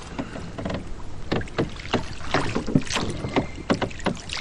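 A boat rowed Venetian-style (voga alla veneta) moves through the water in Venice, with repeated splashing oar strokes and dripping over a steady watery hiss. No voices are heard.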